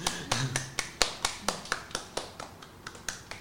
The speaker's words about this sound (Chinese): 再自己帮自己拍拍手。